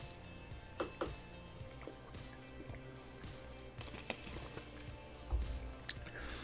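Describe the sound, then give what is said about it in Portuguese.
Someone takes a drink of water to wet their throat: soft wet squishy swallows and gulps mixed with light clicks of a cup or bottle being handled, all quiet, with no talking. “Deixa eu beber uma água para molhar a garganta aqui.”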